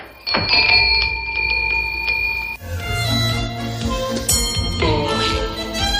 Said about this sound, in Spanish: Ahora, ahora apenas suena la campanilla de la puerta.